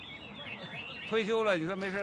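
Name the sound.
caged songbirds chirping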